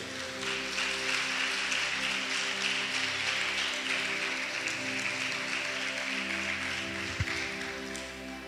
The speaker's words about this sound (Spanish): Dale un aplauso lindo.